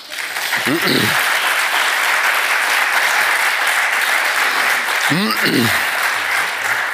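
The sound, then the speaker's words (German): An audience applauds steadily at the end of a panel discussion, a dense, even wash of clapping that holds for several seconds, with a couple of brief voices rising through it. “Sie dürfen gerne auch applaudieren, bitte.”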